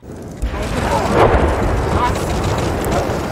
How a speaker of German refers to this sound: Um die Bombe zu entschärfen, wurde sie in den Main gezogen und dort kontrolliert gesprengt.